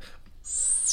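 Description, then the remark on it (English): A synthetic laser sound effect: after a brief quiet moment, a piercing high-pitched tone cuts in and holds, then flares and sweeps at the end. It's fairly loud and stands alone without speech. “You want another laser? Here goes another laser.”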